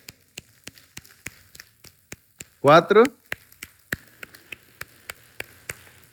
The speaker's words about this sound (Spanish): ¿Ustedes en la escuela alguna vez hicieron aplausos así con un dedo? ¿Me acompañan? Con un dedo. Ve, mi dedo no suena nada, pero ya todos los dedos juntos. Ahora dos dedos. Ajá. Tres